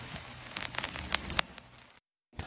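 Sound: heavy rain falling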